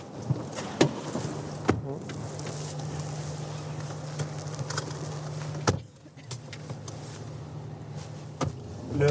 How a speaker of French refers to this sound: On reprend la voiture pour remonter à la surface, à l'abri du grondement généré par la puissance de l'eau.